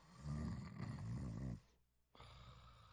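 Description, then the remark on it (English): A sleeper snores loudly, one long rumbling, raspy snore followed by a brief hush before the next breath starts. No one speaks. “symptoms, which changes a night that sounds like this into a night that sounds more like this.”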